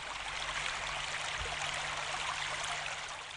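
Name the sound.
river water flowing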